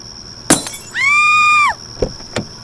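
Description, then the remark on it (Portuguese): A sharp crash of a car window being smashed, followed by a steady, high ringing blare lasting under a second, then two more brief cracks and clinks of glass. “Você está bêbado demais para dirigir se você não sair desse carro, eu vou quebrar a janela.”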